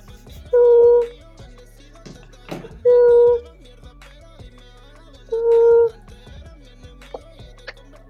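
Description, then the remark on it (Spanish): A phone call ringing through on a cell phone connected to a microphone, three clear ringback tones spaced evenly about two and a half seconds apart, loud, with quiet pauses between them. “voy a llamar el kit. Ya, pues. Dale. Ya, lo estoy, ya lo estoy llamando”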